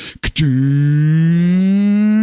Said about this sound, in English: You'll hear that sound. That's the sound of your furnace. And then the smell. Hey, this thing hasn't been on since like April.